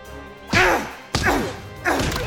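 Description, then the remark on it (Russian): Three heavy fist punches land at a steady pace, each a meaty thwack with a brief swishing tail, as a man sitting on top of another man strikes his face. “Дани сделает несколько ударов, и лицо мецената отлетает в сторону смятое.”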